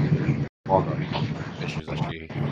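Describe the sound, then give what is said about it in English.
A steady, low train rumble runs continuously beneath a man talking over a thin, phone-like line, the noise staying constant apart from one brief dropout. “The train is running you out nicely.”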